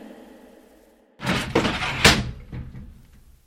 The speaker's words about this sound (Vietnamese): Cậu bé cúi đầu trước ngưỡng cửa, người phụ nữ đóng cửa và nói vọng ra câu gì đó.